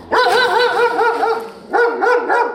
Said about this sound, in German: Die Zwinger sind voll. Lauter Hunde, abgegeben, ausrangiert von ihren Menschen wie nutzlose Dinge.